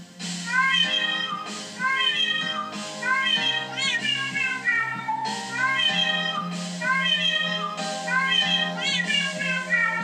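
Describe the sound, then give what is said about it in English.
Loud, annoying cat meow sounds played back from an online video in the background come in quick overlapping bursts, one after another for the whole stretch, with a steady low hum underneath and no talking. “playing these uncomfortably loud, annoying cat sounds in the background from YouTube”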